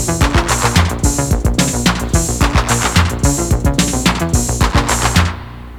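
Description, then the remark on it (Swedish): An upbeat Danish new wave pop song plays loud, driven by punchy, rapid drum hits and bright synth layers, with no vocals, before cutting off abruptly just before the end. “Det, påminner mig om eh, Neudeutsche Welle när den är som bäst egentligen.”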